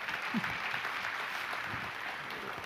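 Steady applause from a church crowd welcoming the next speaker after a Bible reading, a dense continuous patter of clapping that holds at an even level for the whole stretch, with no voices standing out.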